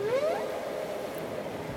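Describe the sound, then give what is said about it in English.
A whale sings one rising, moaning upsweep with overtones, which gives way to a steady watery wash of lower tones and noise. Moderately quiet, with no voices. “Finally, the whale began to sing and chant, sing and chant.”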